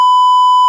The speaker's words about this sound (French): Alors, alors je vais biper. Hein euh, pour les gens qui écoutent, je suis désolé, je veux pas vous spoiler le film, ce sera bipé.